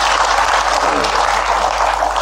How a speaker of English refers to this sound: Oh, always a slightly reassuring sound, I imagine, at these uh, times. What? A round of applause. Oh, that's what that was.